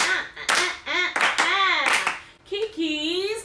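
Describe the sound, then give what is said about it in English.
A handful of sharp hand claps land in an uneven rhythm over a voice making drawn-out, sliding vocal sounds, with a higher, steadier tone at the end. “i make it clap.”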